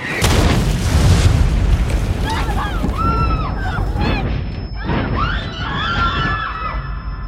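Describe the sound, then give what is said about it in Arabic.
An artillery shell coming from around the corner explodes with a sudden, heavy boom that leaves a loud, rumbling roar, followed by frantic high-pitched cries and shouting from several people over the lingering noise. “مجرد ما باخد أول خطوة تجي قذيفة من الزاوية”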